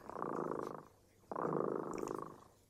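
A cat named Tremota purrs in two long, rumbling cycles separated by a brief pause, the steady buzzing vibration clear and fairly soft, with no talking.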